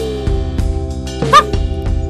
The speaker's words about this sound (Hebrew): כלבים.